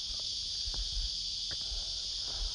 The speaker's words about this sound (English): So, you know what? Here's the crickets, cicadas, whatever. They're giving me a standing ovation.